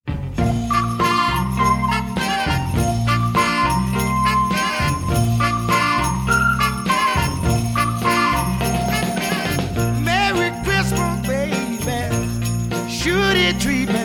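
A Christmas soul recording plays at steady full volume, with a repeating bass line, full band backing and a bright tinkling jingle running through it, no talking over the music.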